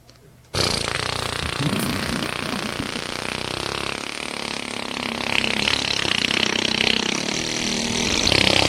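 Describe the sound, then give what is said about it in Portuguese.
A small 50cc moped from Leo Motos, an exclusive Shineray dealership, kicks in abruptly and runs at a loud, steady, buzzing rev on an unpaved dirt road, climbing slightly in intensity toward the end as the road demands more of the engine. “Nossa cinquentista, ouve só o barulho, ouve só o barulho. Cadê o barulho? Vou acelerar agora.”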